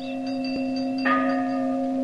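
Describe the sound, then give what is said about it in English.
A large bell rings with a deep, sustained hum, then is struck again partway through, adding a brighter clang over the lingering tone. No voices are heard. “And that's a sound similar to the historic ringing of the Liberty Bell in 1776.”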